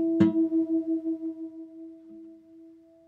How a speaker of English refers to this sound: I got to take this out of tune string and get it into harmony or unity with this string that's in tune